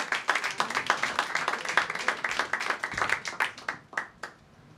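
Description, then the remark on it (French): An audience claps steadily, many overlapping hand claps forming a continuous crackle that swells slightly then thins out and fades near the end, with no talking, applauding the next performer as he walks up to the microphone. “On l'applaudit jusqu'à la qu'il arrive au micro.”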